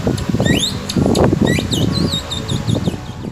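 Several birds chirp with quick rising and warbling calls over a loud, gusty rush of strong morning wind that buffets the low end throughout, heard from steps near a school classroom, the birdsong bright above the rumble.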